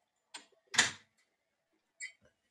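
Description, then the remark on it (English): A door opens with a click, then a loud thump as it swings shut, followed about a second later by two quieter latch clicks. “It's cold out there. Shut the door.”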